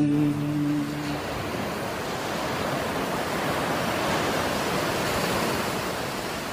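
Steady, rushing surf of ocean waves washing onto a white-sand beach with clear sea water, a broad continuous roar heard alone, with a brief low tonal hum fading out in the first second.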